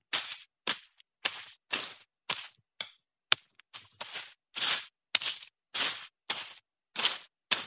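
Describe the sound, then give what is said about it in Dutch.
A sound generated by an algorithm to match a video of someone moving a drumstick through bushes: about a dozen sharp, crackly rustling bursts in a steady rhythm, each brief and bright, separated by short silences, with no talking. “Hier is een filmpje ingevoerd waarin iemand met een drumstok door wat struiken beweegt.”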